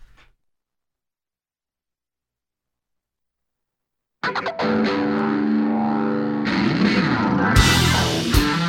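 After roughly four seconds of silence, a loud, distorted electric guitar bursts in, launching a blues song with a thick, driving intro and no singing yet.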